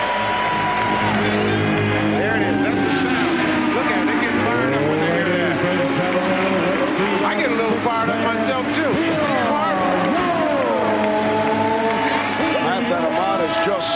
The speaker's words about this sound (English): I don't want to know how the fucking Indiana race car sound effect works.